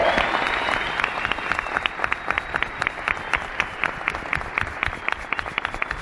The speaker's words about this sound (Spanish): Un fuerte aplauso para Daisy Fausto.